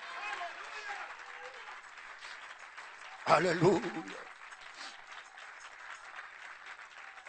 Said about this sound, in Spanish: Si es para Dios, dale ese aplauso con todo el corazón.